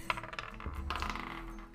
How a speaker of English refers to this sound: So everyone, roll a perception check.